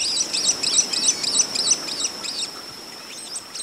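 White-collared swift calls: a rapid series of shrill, high-pitched chattering chirps repeating in quick bursts, steady for about two and a half seconds, then trailing off into a few fainter notes.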